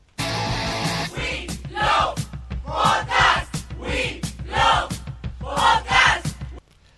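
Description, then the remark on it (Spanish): A group of voices shouts a rhythmic chant in unison, several loud bursts in a row over a steady low rumble, ending abruptly after about six seconds. “Así que disponemos a hacer un último gritito que tenéis por aquí puesto en vuestro canal de YouTube y ya empezamos.”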